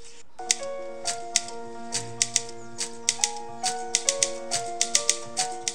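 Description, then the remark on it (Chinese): The opening score of a film, built around a typewriter: sharp, irregular key clacks rattle over sustained, layered tones that step between pitches, with a low drone swelling briefly midway. No one speaks. “然后这部电影啊，一开始就是用一个打字机的配乐， 嗯， 我很想要放给大家听，哎，就是还我觉得还蛮酷的。”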